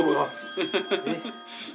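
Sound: telephone ringing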